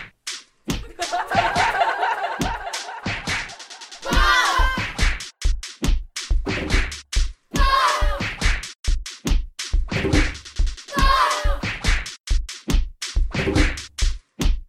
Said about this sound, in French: Il se reprend une baffe.